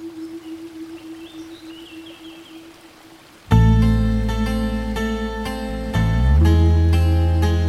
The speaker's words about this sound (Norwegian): Bare sus fra fossen.